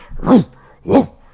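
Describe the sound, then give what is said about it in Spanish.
A person imitates a dog's bark with their voice: two loud woofs spaced about half a second apart, each rising and falling in pitch, with no other talking. “esa vaina no es un ladrido, un ladrido es”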